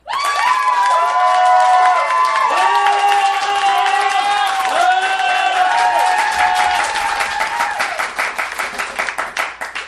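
A crowd breaks into loud, sustained applause mixed with cheering and rising and falling whoops, the clapping thinning into scattered claps as it dies down near the end.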